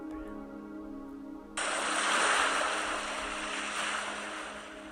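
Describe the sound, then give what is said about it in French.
A steady, hissing wash of distant ocean waves swells in after a quiet low hum, then holds as a broad, soft roar with no voices. “Tu peux peut-être entendre à ce moment même les vagues au loin.”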